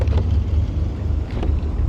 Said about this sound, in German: Diese vielen Minuten des Wartens auf die richtige Entscheidung im richtigen Augenblick sind mit so intensivem und konzentriertem Nachdenken verbunden, dass sich sogar das Kühlgebläse einschaltet.